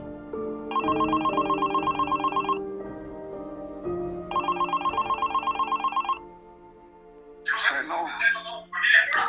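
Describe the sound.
A telephone rings twice during a call to a doctor, each ring a bright, rapidly trilling burst lasting about two seconds with a pause between, over a low steady tone; a voice then begins speaking.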